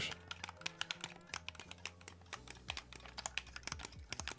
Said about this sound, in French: Une télécommande pour la télé une manette de jeu. Exactement. Voilà, C'était une manette de Xbox.